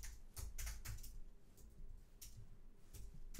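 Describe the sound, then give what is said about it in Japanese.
Quick, uneven clicks of keys on a hard-to-type-on computer keyboard, typed in short bursts with brief pauses, fairly quiet, with no one speaking, as the location Yokohama is entered into an ad's targeting field. “これキーボードが打ちづらくて、はい。”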